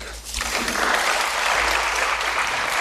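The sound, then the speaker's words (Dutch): Sustained applause in the European Parliament chamber in Strasbourg, including from Parliament President David Sassoli, as the Parliament sits there again after 15 months; a dense, steady wash of many hands clapping at once, loud and even throughout with no individual claps standing out. “Ja, applaus van voor parlementsvoorzitter David Sassoli, die duidelijk in zijn nopjes was.”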